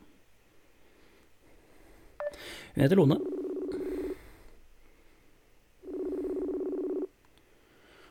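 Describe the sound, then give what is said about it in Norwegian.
A short warbling electronic burst leads into two long, steady telephone ring tones separated by a few seconds of quiet, as a call is placed to someone's girlfriend; someone speaks briefly just before. “Kan jeg ringe, kan jeg ringe kjæresten min, da?”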